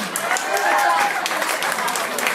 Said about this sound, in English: All right, ladies and gentlemen, please, nice round of applause on the main stage.